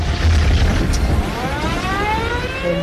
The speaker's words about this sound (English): the truck exploded and his dashcam caught every moment